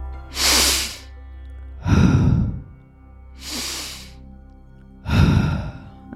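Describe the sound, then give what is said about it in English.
Deep, audible breaths in a steady breathwork rhythm: two full inhale-exhale cycles, each airy intake followed by a heavier, lower exhale, with no talking. “And then we're going to breathe the breath pattern from that place.”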